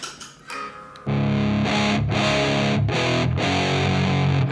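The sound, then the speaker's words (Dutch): A heavily fuzzed electric guitar plays alone, with thick, saturated sustained chords that ring out in a few long swells after a brief quieter lead-in. Loud and buzzy, Big Muff-style tone. “En, maar als je die fuzz alleen hoort, dan is het weer”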